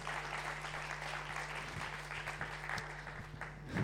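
Steady applause from a church gathering for an old friend asked to come up front, a dense, even patter of many hands clapping for several seconds with no voices standing out, swelling slightly at the end.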